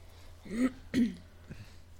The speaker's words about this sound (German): Aber Räusper dich noch einmal. Danke.